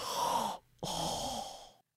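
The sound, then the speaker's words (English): A voice imitates a film character's heavy breathing: a long breathy exhale, a brief pause, then a second drawn-out breath that trails off into silence. “That's like most of the second half of the film and so much breathing.”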